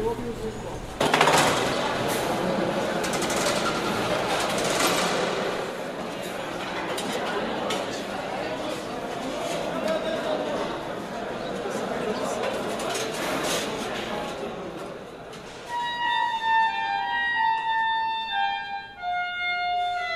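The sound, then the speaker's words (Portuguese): Busy clatter of dishes and cutlery in the university cafeteria (RU) of URGS rattles continuously over a steady murmur of many voices, closing with a few bright, ringing clinks. “Ouvimos aí as piscinas da Exefid, as conversas de corredor e o RU”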